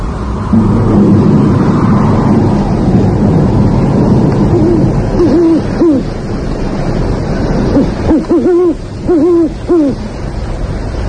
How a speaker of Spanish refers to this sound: La tormenta está ya encima. Puedo comprobarlo claramente con el reloj, al ver cómo va disminuyendo el intervalo entre el relámpago y el trueno.